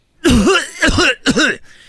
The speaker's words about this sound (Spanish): en el show Choco, el otro ya estaba tosiendo ahí